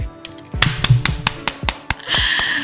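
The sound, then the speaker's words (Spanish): Applause: a scattering of sharp, uneven hand claps, roughly ten in under three seconds, swelling into a denser, hissing wash of clapping near the end. No voices. “Wow, yo creo que ese aplauso es bien merecido para Dios y para todas las amadas que han hecho posible este trabajo.”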